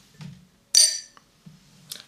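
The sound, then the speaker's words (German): Glasses clink together in a toast of 'Prost': one bright, ringing chime that fades over a fraction of a second, followed by a fainter tap and some soft low murmurs around it. “Prost.”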